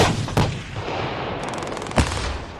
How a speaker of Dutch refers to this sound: Ja, het is sowieso het moment dat je uiteindelijk af kan drukken en dat daadwerkelijk die klap uit het kanon komt. Dat is naar mijn idee het mooiste wat er, eh, wat er gebeurt op de tank.